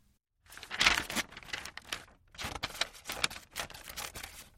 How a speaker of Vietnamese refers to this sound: Đông Ghi giúp cha dùng thước và kéo để cắt giấy thành những sợi mỏng như bún